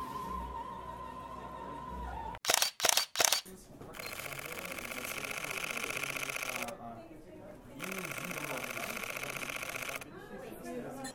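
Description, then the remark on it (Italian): A few sharp shutter clicks from an NX1 mirrorless camera at its product presentation, then two long rapid-fire bursts of shutter sound, fairly loud, with faint voices murmuring underneath. “è il rumore della raffica della NX1.”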